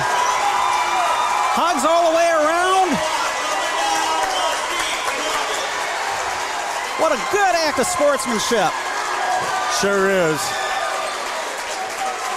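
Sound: basketball crowd cheering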